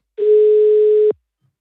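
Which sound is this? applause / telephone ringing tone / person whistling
telephone ringing tone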